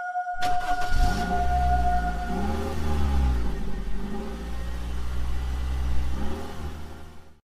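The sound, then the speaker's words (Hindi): A car engine starts with a sharp burst, then rumbles and revs up through a few gear-like swells as the car pulls away, the driver heading home, loud throughout with no talking. “वो ज्यादा कुछ सोचे बिन अपने गाड़ी में बैठ घर की ओर निकल पड़ा”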